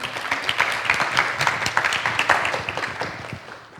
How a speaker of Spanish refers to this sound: Ahora sí, el aplauso. Acá.